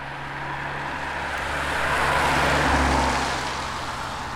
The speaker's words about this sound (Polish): Co chwilę przejeżdżają wozy i samochody OSP, Ochotniczej Straży Pożarnej.